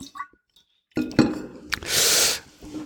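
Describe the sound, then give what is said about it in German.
Two thermos flasks knock together once in a toast, a dull, brief clink, followed by soft handling noises, a short hissing burst and quiet sipping of water. “Wir müssen anstoßen mit unseren äh, Thermoskannen.”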